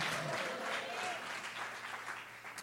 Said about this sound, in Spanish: Alguien que le dé un aplauso, alguien que lo crea, que lo crea, que lo crea, que lo crea y que le dé un aplauso al Señor y le diga, Señor, yo lo creo.